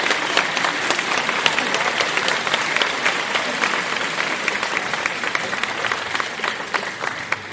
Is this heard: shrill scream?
no